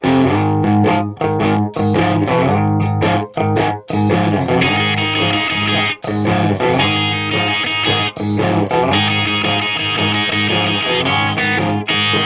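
A loud rock song with heavy distorted electric guitars and a driving drum beat, the full band playing continuously with short rhythmic breaks and no vocals.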